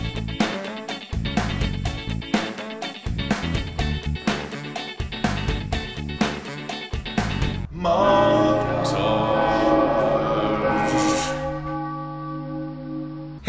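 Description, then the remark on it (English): A mournful tolling bell dirge sound effect strikes in slow, steady succession, each ringing note overlapping the last, then swells into a dense, sustained chord of droning tones that holds before fading. No voices. “Yes, the the montage dirge.”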